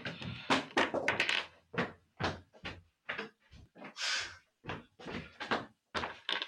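Someone knocks on a door in a long, uneven series of loud thumps and raps, with short gaps between hits and no voices; the person has come to collect something at the wrong address.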